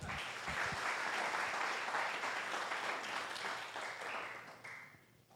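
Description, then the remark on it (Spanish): A crowd applauds an actor with dense, steady clapping that holds for several seconds before gradually thinning and fading toward the end. “Un aplauso para el actor aquí.”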